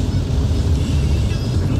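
Heavy rain drums steadily on a moving car during a downpour in heavy traffic in Costa Rica, a dense, continuous roar blended with low engine and road rumble, loud and unbroken throughout.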